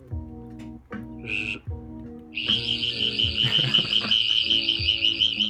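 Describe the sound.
A person imitates a cicada's summer call with their voice: a brief buzzy burst, then a loud, sustained shrill drone that wavers rhythmically for several seconds, clear with no talking.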